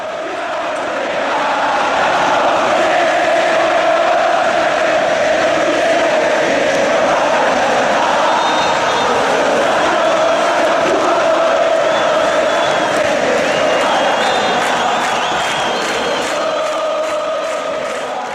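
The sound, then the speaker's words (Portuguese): A huge crowd of Boca Juniors supporters in Argentina, the barra known as La 12, chants in unison in a stadium, a loud, sustained wall of massed voices singing a rhythmic, repeating melody, with occasional whistles and shouts rising above the roar. “Agora você vai sentir a emoção da barra mais famosa, a do Boca Juniors.”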